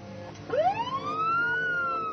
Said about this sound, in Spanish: Las sirenas de la policía se escuchaban desde el interior de mi casa.